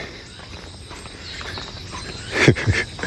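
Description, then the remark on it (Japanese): Faint, steady insect droning from cicadas near a forest in summer, with a couple of footsteps crunching toward the end as someone walks along the Takase River at lunchtime. No one speaks. “なんかセミの生態みたいなことがあの分かる夏になりそうですあ声聞こえてきましたねちょっと森の方に近づいてきたらちょっと聞こえてきたのでまだご存命のようですね”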